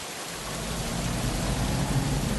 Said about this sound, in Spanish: De la nada, comienza a llover.